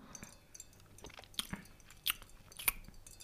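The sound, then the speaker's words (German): Wet lip smacks and mouth clicks, several brief bursts scattered over a few seconds, as a woman tastes a wine, with no talking. “schmatz, schmatz.”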